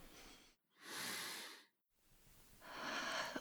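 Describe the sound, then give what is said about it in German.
Two slow, breathy airflow sounds, moderately loud, from a breathing exercise: a long, audible active nasal inhale with the chin slightly raised and a brief pause after it, then another long rushing breath. No one speaks. “Und beim letzten Mal denken wir an ein Lavendelfeld und atmen aktiv ein.”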